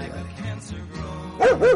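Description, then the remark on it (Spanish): A dog gives two loud, sharp barks in quick succession, after a stretch of low background hum. “¿Me escuchas, perro?”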